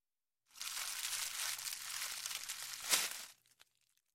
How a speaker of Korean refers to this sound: 서둘러 비닐로 포장되어 있는 패키지를 풀자 검은 천으로 만든 챙없는 모자가 굴러나왔다.